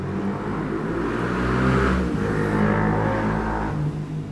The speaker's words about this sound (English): sorry that was a bike making a noise